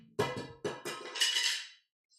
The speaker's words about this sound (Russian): А, вот как я и говорил по закону Мерфи. Вот упала квадратная штука – и упала, блядь, в самый дальний конец комнаты. Она просто, она не может катиться, но она, блядь, укатилась. Квадратная штука.